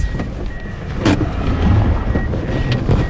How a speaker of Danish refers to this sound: Rundt om os farer civile afghanere i deres ramponerede biler i høj fart forbi, for at komme væk fra krigen, der pludselig er brudt ud der midt i hverdagen på vejen.